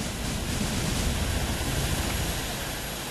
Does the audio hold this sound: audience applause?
no